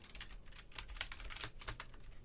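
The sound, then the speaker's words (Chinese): Rapid touch-typing on a Korean-layout computer keyboard, a steady stream of crisp, clicky keystrokes with uneven rhythm and a few louder taps, heard on its own without any talking. “我的键盘现在它是一个韩文键盘，所以我现在都要盲打。”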